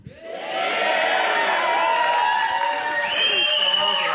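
At a concert, an audience asked to make noise if they liked the first part of the musical programme erupts into loud, sustained cheering and applause, many voices whooping and shouting together at a steady high level for about four seconds after a quick swell at the start.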